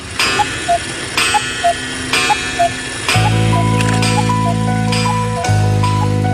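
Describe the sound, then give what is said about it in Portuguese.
An old clock in a Creole manor house ticks steadily in a tick-tock rhythm on a morning, then begins striking seven: two deep, resonant chimes ring out loudly, the second arriving as the first still hums. “As sete badaladas do velho relógio do casarão crioulo partem voando como aves sonoras através do silêncio manso da manhã”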